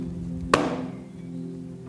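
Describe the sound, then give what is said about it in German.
A single sharp knock on a door, its ring fading over a second against a steady low background hum. No one speaks. “Also ich klopfe”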